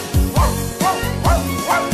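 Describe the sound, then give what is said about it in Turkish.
A dog barks four times in a steady, evenly spaced rhythm, each bark loud with a short tonal yelp quality. No talking over it. “köpekleri var”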